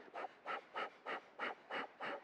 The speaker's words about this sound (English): All right, so, hmm, eyes closed for this Kriya. The scissor experience, okay. The mechanics, you start making scissoring motions with your fingers and start breathing out, Kapalabhati.